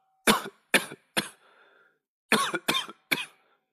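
coughing

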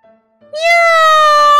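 cat meowing

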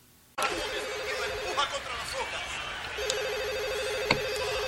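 telephone ringing

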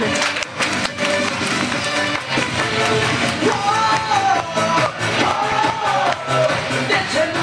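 warm applause

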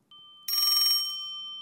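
telephone ringing

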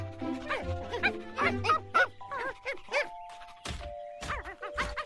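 small dogs barking

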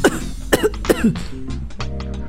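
man coughing

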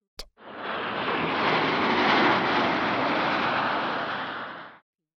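jet aircraft engine

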